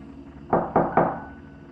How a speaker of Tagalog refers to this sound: Pero patuloy pa rin ang kaluskus at katok